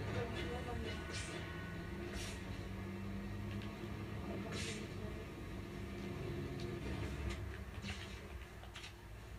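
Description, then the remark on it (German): A train rumbles steadily along rail tracks, a continuous loud low roar with brief high-pitched squeals and clicks from the wheels cutting through now and then. “Ey, wenn das schon wieder die Gleise sind.”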